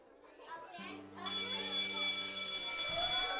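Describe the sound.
Children's voices chatter as a fourth grade class in Bar Harbor, Maine, is leaving for the day, then a loud electric school bell starts ringing and keeps going steadily over the noisy, lively kids.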